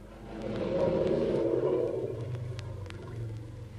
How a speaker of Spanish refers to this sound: Temblaba el aire, dicen, de los mugidos terribles, y deshacía el elefante el cañaveral con las pisadas, y sacudía los árboles jóvenes